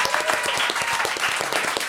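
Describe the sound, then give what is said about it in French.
A live audience, asked to applaud as fast as possible for five seconds, claps as fast as it can, a dense, rapid patter of many hands that stays loud and steady throughout with no voices over it. “Et maintenant, je vais vous demander d'applaudir le plus rapidement possible, sur 5 secondes.”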